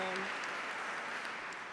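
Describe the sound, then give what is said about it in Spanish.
Steady audience applause, a dense wash of many hands clapping at an even loudness throughout, with a brief voice-like tone at the very start. “Vamos a dar un aplauso”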